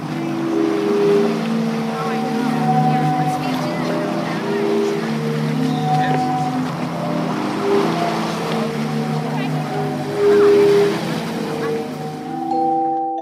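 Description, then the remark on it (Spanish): A 65-metre sea organ sounds as waves push air through its pipes: overlapping hollow, breathy tones that swell and shift in pitch, layered over constant wash and surf with no one speaking. “son 65 metros los que pueden recorrer por este órgano de mar.”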